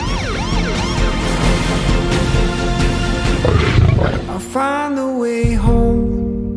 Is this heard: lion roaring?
yes